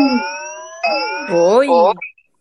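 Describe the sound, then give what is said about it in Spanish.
An alarm goes off loud, holding a steady electronic tone before shifting into a wavering, rising-and-falling wail, then cutting off abruptly after about two seconds. “Ya inició la alarma.”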